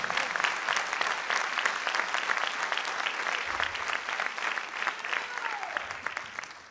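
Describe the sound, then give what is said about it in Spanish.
An audience applauds the Lord loudly and steadily, a dense wash of many hands clapping at once with no pause, and faint voices blending into the clapping. “lo fuerte ese aplauso al Señor.”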